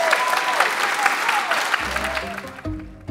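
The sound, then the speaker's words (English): A crowd applauds writers at a bookstore event, steadily, a dense wash of many hands clapping, while music fades in beneath it during the final second and the clapping thins out. “Can we all give uh, everybody a round of applause?”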